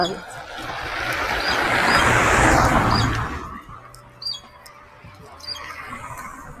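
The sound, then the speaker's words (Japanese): A few short, squeaky calls of a great-tailed grackle, a crow-like bird, ring out over a noisy outdoor background, with muffled voices murmuring underneath. “黒おなが、んおなが黒ムクドリという鳥で。聞こえますかねキュッキュ鳴って。カラスみたいな鳥です。”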